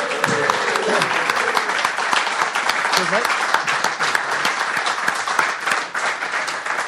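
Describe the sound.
Sustained applause from an audience showing appreciation for Mr. Graham Roberts, dense steady clapping for several seconds, with a few voices and cheers mixed in near the start.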